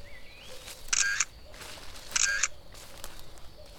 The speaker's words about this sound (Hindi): तीनों घूमते घूमते नीमा गांव के खेतों की फोटोग्राफ्स खींचने लगी